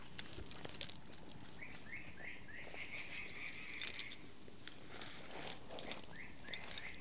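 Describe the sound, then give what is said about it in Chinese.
Birds chirp in a tree canopy in quick, repeated bursts of high, bright notes over a steady, shrill insect drone, with wind through the treetops and louder trills coming and going; no one speaks. “然后现在呢，你可以听到的声音，除了虫鸣鸟叫之外，还有风吹过树梢的声音。”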